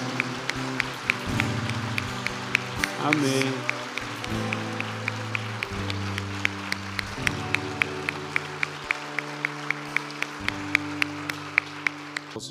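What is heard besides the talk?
audience applauding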